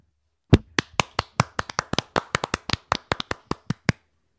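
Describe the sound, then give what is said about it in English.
A quick run of about twenty sharp hand claps in a steady, slightly uneven rhythm, each a crisp snap, clapping to cheer at a clapping convention, lasting roughly three and a half seconds with no talking. “Just make sure to clap, clap, clap, clap, clap, no matter what.”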